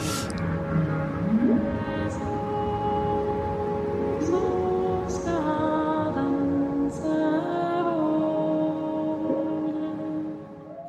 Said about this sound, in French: j'ai fait au nord de la Norvège sur un bateau. Euh, l'hiver d'il y, a un an, un an et demi, euh, vers les, îles Lofoten et tout ça, où j'ai pu enregistrer des baleines et des orques et tout euh, sous l'eau.